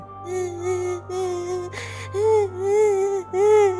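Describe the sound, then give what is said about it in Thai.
A child cries in a series of drawn-out, wavering wails that rise and fall, sounding a little muffled and faint, coming from the direction of a door, over a steady low hum, with a brief burst of noise midway. “จากนั้นลุงทองดีก็ได้ยินเสียงเด็กร้องไห้แว่วๆมาจากทางประตูเช่นกัน”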